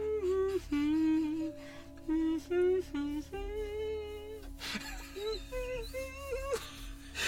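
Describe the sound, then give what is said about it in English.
A lone voice wails a slow, mournful tune, holding long wavering notes that step up and down in pitch, with brief breaths between phrases. “Could you give us a, a mournful tune?”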